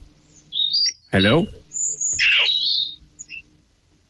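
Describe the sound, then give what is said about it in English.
Shrill, seagull-like squawks cut through a thin, phone-line sound, one short cry, then a brief spoken greeting, then a longer, harsher screech that fades out. “I think she may have been attacked by a seagull or something.”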